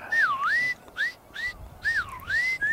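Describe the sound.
A person whistles an imitation of a northern lapwing's display-flight call: a few swooping, slurred phrases that dip and rise again, clear, with no speech.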